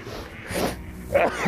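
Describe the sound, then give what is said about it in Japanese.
A sharp sneeze from a person whose body had suddenly got chilled bursts out with a breathy hiss, followed by a brief voiced exhale or snort-like sound as it trails off. No talking. “えらいくしゃみ出ちゃいましたね、と思って。”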